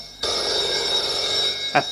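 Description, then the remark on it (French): A telephone on a nightstand beside a bed rings with a bright, continuous electronic trill that starts abruptly and holds steady; a voice briefly begins speaking near the end. “Le téléphone sonne sur sa table de nuit.”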